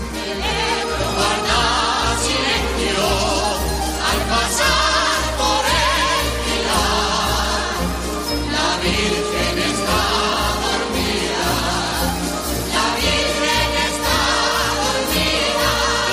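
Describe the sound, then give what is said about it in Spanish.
Pasodoble music related to the Ebro river plays throughout, loud and full, with a steady, even march-like beat in the low end and bright, dense melodic instruments layered above. No voices are heard. “escuchamos un paso doble J o J paso doble relacionado con el El Ebro”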